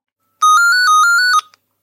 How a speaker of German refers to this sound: Oh, oh, entschuldigt bitte. Das ist mir jetzt peinlich mitten in der Aufnahme. Äh, ein Anruf, ich habe ich hab das Telefon gar nicht abgestellt.